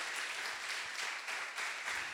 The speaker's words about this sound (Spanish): Somos una familia para tu familia y me gustaría que le diéramos un aplauso al Espíritu Santo porque Él es el único